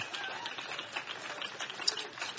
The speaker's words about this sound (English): We give thanks. We clap our hands. We shout unto God with the voice of triumph.